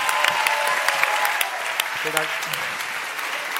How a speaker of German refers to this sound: Großer Applaus. Großer Applaus.